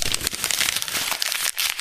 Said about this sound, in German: Hast du ein Blatt ja. Papier neben dir? Ja, habe ich. Kannst du das zerknüllen und in eine Ecke werfen? Das kann ich. Moment.